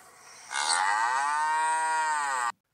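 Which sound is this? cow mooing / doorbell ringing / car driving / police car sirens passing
cow mooing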